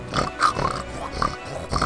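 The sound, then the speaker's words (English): A voice imitates a pig knight, making a string of nasal snorts and grunty squeals in quick, uneven bursts, fairly loud, with no other talking. “I just kind of chucked the pig knight in there like it didn't belong, really, wasn't it?”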